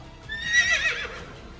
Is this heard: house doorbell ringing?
no